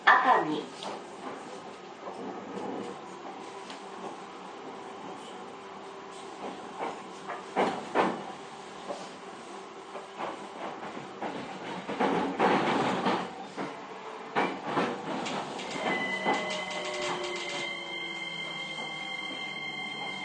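A JR E231 series commuter train running between Ito and Yokohama, with a steady rumbling hum and hiss, punctuated by clacks and bursts of wheel noise, while tonal motor whines rise and fall toward the end.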